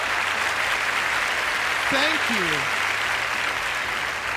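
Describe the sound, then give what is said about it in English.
Steady audience applause, a dense even wash of clapping that fills the whole clip, while a man briefly speaks over it partway through. “Thank you for applauding my poor parenting.”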